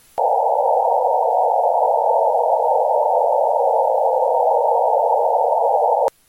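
A Doppler-shifted radio echo from Mars: a steady, loud band of midrange hissing static that switches on abruptly, holds unchanged for about six seconds, then cuts off sharply. No one speaks.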